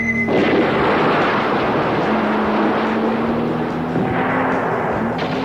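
A rocket explosion blasts through a roadblock, a loud, dense roar that stays heavy for several seconds over a steady engine drone, with no voices.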